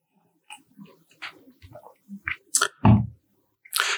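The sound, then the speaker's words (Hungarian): Drinking sounds as a person drinks to someone's health: a few soft sips and wet mouth clicks, then a louder gulp and swallow, with a short breathy exhale at the end. No one speaks. “Iszok az egészségedre.”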